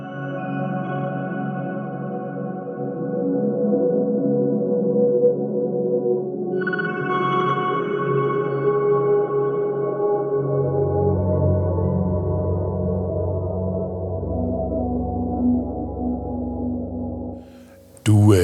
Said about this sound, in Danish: pauser den en lille bitte smule her øh, og spiller et lille stykke musik